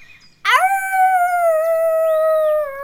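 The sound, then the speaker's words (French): A single loud, sustained howl rises sharply after a brief silence, then holds a steady, slightly falling tone with rich harmonics for over two seconds, alone. “Un hurlement s'échappe de sa gorge et fait trembler les arbres de la clairière.”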